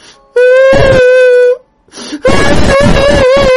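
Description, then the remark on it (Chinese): A voice imitates a woman's loud, wavering wail in two long sobbing bursts, each a sustained mid-pitched cry with a brief gasp between them. “有个女的哭，这哭声啊还就不远。”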